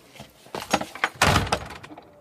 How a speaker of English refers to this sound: Oh! Shut the door